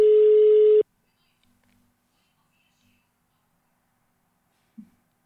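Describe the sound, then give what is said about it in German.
A phone's outgoing ringing tone sounds once as a loud, steady beep of under a second, followed by several seconds of near silence with a faint click near the end. “Warte mal, rufen wir jetzt einfach mal an.”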